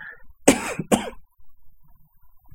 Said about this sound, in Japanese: ちょっと咳込みますね。